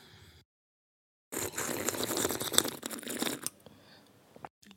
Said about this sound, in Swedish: Okej, okay, jag ska bara ta en slurk kaffe. Skål då.